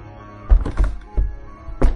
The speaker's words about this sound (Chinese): 几秒钟后，暗门外面传出一阵疯狂敲打的声音。